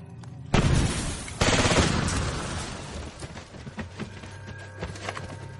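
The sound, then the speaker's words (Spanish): Gunfire aimed at a trench door erupts in loud, dense bursts at the start, then settles into a ragged stream of sharp cracks and pops that keeps going, with no one speaking. “Disparan contra una puerta de la trinchera.”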